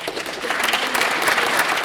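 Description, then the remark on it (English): A crowd claps steadily in thanks to Congressman Richard Neal for federal earmark funding: a dense wash of many hands with no breaks or distinct beats, holding at an even moderate loudness for the whole two seconds with no voices over it. “Thanks to all of you, and generally you don't have much applause for federal spending.”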